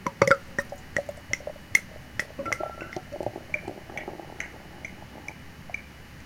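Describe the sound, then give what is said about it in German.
Beer being poured into a glass, with a fizzy, crackling foam and irregular wet pops and drips scattered throughout, fairly quiet and with no voices. “bei Martin hört man auch schon, wie es rinnt und läuft”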